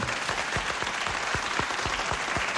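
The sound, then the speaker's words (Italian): Steady audience applause for a singer fills the whole stretch, a dense wash of many hands clapping at an even level, with a few sharper individual claps standing out in a loose rhythm. “Un applauso sì. a …, mi pare che sia giusto.”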